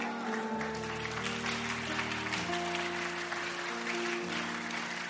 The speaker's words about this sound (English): Oh, you better clap.